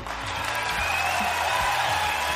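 A steady round of clapping from a crowd, a dense, even patter that holds at the same loudness for a couple of seconds, with a low humming tone running underneath.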